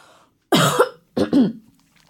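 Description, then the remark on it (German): Someone clears their throat twice, two short, raspy bursts separated by a brief pause, with no talking around them. “Frosch im Moment.”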